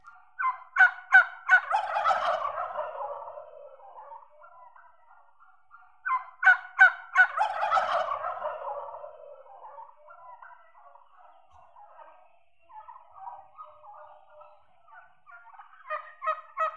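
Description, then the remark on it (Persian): A turkey gobbles twice, a few seconds apart, each a loud, rapid rattling burst that trails downward, followed by softer intermittent clucks. Clear with no voices. “واقعا صدای بوغلمون بامزه است دیدین چه جوری حرف میزنه؟”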